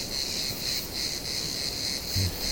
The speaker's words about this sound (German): Die Zirkaden im Hintergrund, echte Zirkaden, echt ja.